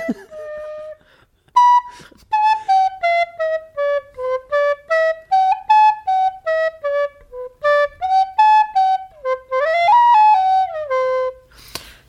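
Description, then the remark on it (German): A recorder plays the winter song "ABC, die Katze lief im Schnee", about twenty clear detached notes in a steady rhythm, rising and falling in a mid-to-high register, with no talking over it. “Also wirklich, muss auch sagen, die Blockflöte wird unterschätzt.”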